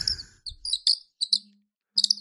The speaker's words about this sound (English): A bird. Oh, look. A sparrow has wandered into the studio. Oh, hello, cute sparrow. I bet you a lot of people would love to see that sparrow. It is so beautiful. Hello, sparrow.